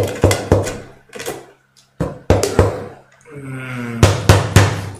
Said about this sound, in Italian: che vi viene a bussare alle porte.